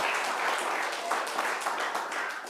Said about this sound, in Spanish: Dele palmas al Señor. Gloria a Dios.